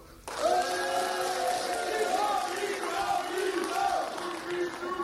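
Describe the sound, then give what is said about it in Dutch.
A full studio audience erupts into loud cheering and applause, shouting and whooping in a sustained, dense roar that starts abruptly and holds steady for several seconds. “We hebben een studio vol publiek. En dat laat zich nu even horen.”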